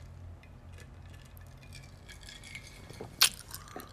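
A low hum runs under scattered small ticks, then a single sharp, bright clink rings out near the end as a water glass or bottle is handled, followed by a couple of softer knocks.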